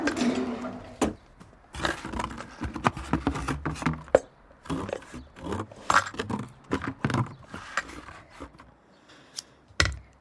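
Repeated snipping and scraping as scissors cut open a cardboard compartment sealed shut with tape, with uneven bursts of tearing and crinkling spread across the whole stretch and no voices.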